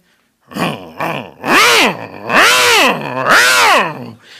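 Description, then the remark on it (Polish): A man's voice mimics chainsaws starting up one morning between six and seven at a remote camp beyond Suwałki, Poland: two short sputtering bursts, then three loud, drawn-out revving whines that rise and fall. “piły motorowe, ludzie.”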